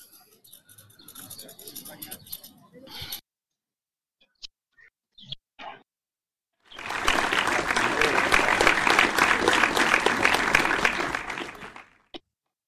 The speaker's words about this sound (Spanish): Tardé en hablar porque estaba buscando el botón del aplauso bien merecido para ti,